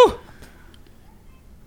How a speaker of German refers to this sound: Gesundheit. Oh, Gesundheit.